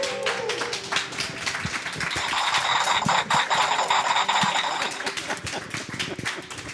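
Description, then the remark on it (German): A small live audience in front of a stage claps and makes noise, a dense, steady patter of hands lasting several seconds, with whoops or whistles rising in the middle and no speech. “Könnt ihr mal ein bisschen Lärm machen, die zwei Leute, die da sind?”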